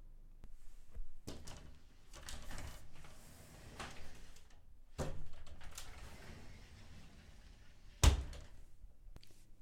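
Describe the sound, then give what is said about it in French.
A wooden wardrobe door is opened with soft creaks and rustling as someone searches the house, followed by several dull knocks and a sharp thunk near the end, with no talking. “Il alla fouiller tous les coins de la maison. Dans l'armoire,”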